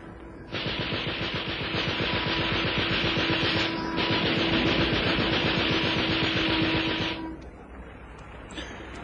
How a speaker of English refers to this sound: If he keeps on shooting now, he's done for. They've got a Vickers K machine gun mounted in the bows of their launch. He's keeping on all right. Listen to him.